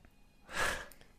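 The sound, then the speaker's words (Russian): A single heavy, rasping breath swells and fades over about half a second, fairly loud, with near silence on either side and no talking. “у вас что-то с дыханием.”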